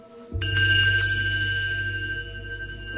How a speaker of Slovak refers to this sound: Teraz som zazvonil liatým spiežovcom, pošumiacky spiežakom. Takisto môže mať akýkoľvek tvar, ale je to spiežovec.